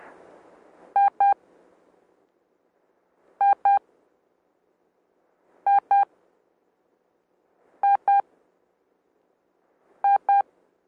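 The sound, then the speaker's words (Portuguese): Morse code tones for the letter I: a pair of quick, identical mid-pitched short beeps, repeated five times at a steady interval of about two seconds, with silence between pairs and no voices. “E de Itália, dois sons curtos.”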